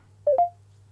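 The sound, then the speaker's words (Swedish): Two quick telephone dialing tones beep in succession, clear and fairly loud over a low steady hum, then the line falls quiet. No one speaks. “vi ringer upp Geigert”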